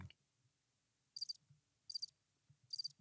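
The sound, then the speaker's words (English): Three short bursts of high, pulsing cricket chirps, evenly spaced about a second apart, against a quiet background with a faint low hum. “Stop with the crickets.”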